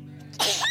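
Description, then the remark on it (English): A single abrupt sneeze from an audience member bursts out during a talk after a moment of quiet, sharp and fairly loud, with a steady low electrical hum running underneath and no talking. “bless you”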